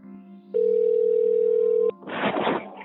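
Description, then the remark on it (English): A telephone ringing tone as a call is placed to a musician: one long, steady, mid-pitched electronic beep lasting over a second above a low hum, followed by a loud burst of rustling, crackly noise. “Lance called up … to catch up.”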